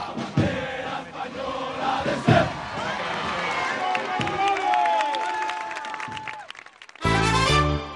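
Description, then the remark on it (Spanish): A large outdoor crowd at a military parade applauds and cheers the marching Legion and Regulares, a dense wash of clapping with scattered shouts and a sustained whistle-like tone, ending in an abrupt louder burst. “Pero como siempre, el desfile rápido de la Legión y su mascota, este año un pony negro llamado Paco o el caminar elegante de los regulares, levantaron la mayor admiración de un público entregado que no dejaba de aplaudir.”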